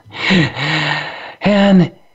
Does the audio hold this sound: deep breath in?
yes